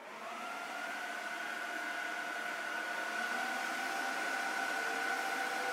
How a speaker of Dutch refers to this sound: vredig gezoom van computers, van processoren. Die beurscomputer die koop- en verkooporders aan elkaar matcht, die staat in Londen. Niet in het centrum in Basildon.